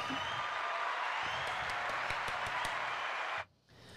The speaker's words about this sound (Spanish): Un aplauso.